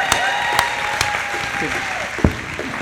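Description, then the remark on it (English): An audience claps steadily in dense, sustained applause welcoming a man back after two and a half months away, with a few sharper claps standing out and faint voices murmuring underneath. “Not because we needed you back, but let's hear it for”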